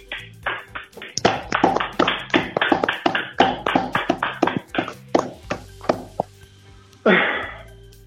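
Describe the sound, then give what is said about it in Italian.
Steady, rapid hand clapping from what sounds like one or a few people, crisp sharp claps that gradually thin out and stop, followed by a short breathy burst of noise. “A tutti voi, a tutti noi, va il nostro grazie e il nostro applauso.”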